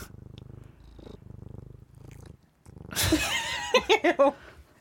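A cat purrs in a steady, low rumbling rhythm for a couple of seconds, then stops; a burst of laughter follows right after.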